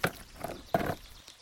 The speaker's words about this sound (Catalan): Després torna a la feina. Llença l'aigua amb la sorra més fina. Retira les pedres més grosses amb les mans i torna a començar.